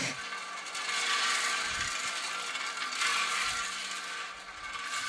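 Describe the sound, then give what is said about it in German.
A continuously running tile elevator in a ceramic tiled-stove factory, connecting all floors and carrying material up and formed tiles down, gives off a steady, loud mechanical clatter, a dense ratcheting and rattling hum that persists without pause and with no voices. “Dieser ständig seine Runden drehende Aufzug übernimmt den Transport von Material nach oben und bringt die geformten Kacheln nach unten.”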